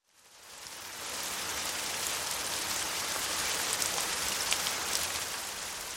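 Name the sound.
rain falling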